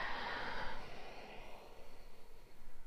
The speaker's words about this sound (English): It's about breathing in and breathing out.